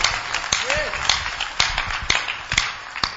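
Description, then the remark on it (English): Audience clapping in a steady, rhythmic beat during a preacher's sermon, with sharp claps landing roughly twice a second, backed by a murmur of voices. “those who are clapping may the lord bless your clapping more”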